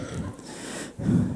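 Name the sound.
sneeze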